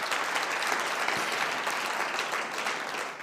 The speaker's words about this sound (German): Und ich denke, da können wir Jesus mal echt wirklich einen Applaus geben, dass wir uns so hier treffen können. Danke, Jesus.